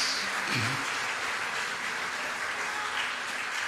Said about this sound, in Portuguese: Dê um aplauso bem forte ao Messias.